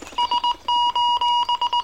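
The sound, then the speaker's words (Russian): A distress signal from the fairy tale 'The Little Humpbacked Horse' (Konek-Gorbunok) beeps out as an electronic alarm: three short high-pitched beeps, a couple of long steady tones, then a quick run of short beeps, loud and clear with no voices. “Еще один сигнал бедствия.”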